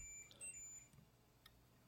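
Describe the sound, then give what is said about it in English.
Faint, high-pitched electronic tones from a house alarm beep intermittently in the background, thin and steady like a smoke detector chirping, with a few soft knocks and no talking. “the alarm's going off.”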